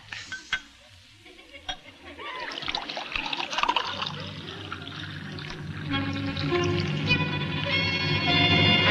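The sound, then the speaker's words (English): Homemade elderberry wine pours steadily into a glass after a few light clinks, the gurgling stream rising in pitch as the glass fills over several seconds. “Uh, pour him a glass.”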